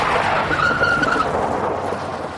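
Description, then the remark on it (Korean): Car tires skid and squeal with a sustained high screech over a loud, broad rumble of road and engine noise, lasting a couple of seconds before easing off, as the driver brakes suddenly and quickly turns the steering wheel, the car swerving in a half circle into the opposite lane. “내가 견눈으로 오일 게이지를 체크하려는 순간 아들이 급 그 브레이크를 밟았다. 그와 동시에 빠르게 핸들을 감았다.”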